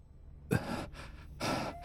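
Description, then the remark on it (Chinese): Heavy, gasping breaths: a sharp first gasp after a moment of silence, followed by a softer breath and another strong, ragged inhale, breathy and unvoiced, with no talking. “古天明大口喘气，整个人感觉十分虚弱”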